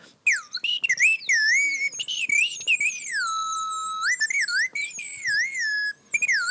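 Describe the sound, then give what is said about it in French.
High, pure whistling tones glide and warble up and down in quick chirps and longer swoops, very simple small slide whistles played with the mouth around them, mimicking birdsong. The piping is steady and fairly loud, with no talking. “Euh, c'est des, des petites flûtes à tirette très simples, mais qui, euh, comme elles sont toutes petites, euh, on arrive assez facilement à faire l'oiseau.”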